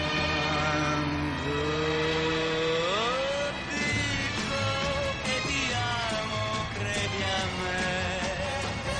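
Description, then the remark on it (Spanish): A motorcycle carrying two riders revs up with a rising whine, then keeps roaring steadily as it pulls away. The sound is loud and continuous, with no voices. “Lo llevan volando hasta la moto. Poco después, los dos van subidos en ella.”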